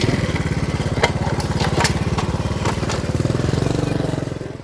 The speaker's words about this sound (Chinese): 所以接下来我们就要跟着这群社工一起去一趟这个夜间出勤。 而且是坐摩托车去。